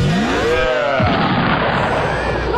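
A layered explosion sound effect made for the 'homelessness explosion' (the 'West Coast bum explosion'): a descending whistle-like tone leads into a loud blast that keeps roaring with dense crackling rumble until the end.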